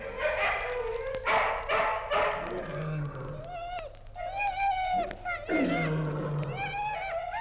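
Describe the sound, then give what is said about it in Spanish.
About a hundred hungry dogs growl and snarl together at night in the dark while gnawing meat and bones, their rough, rumbling growls rising and falling and mixing with higher whining cries, continuous and fairly loud with no talking. “noche, en la oscuridad, de cien perros a la vez se oía el roer de los dientes, el gruñido de gusto, el ruido de las lenguas.”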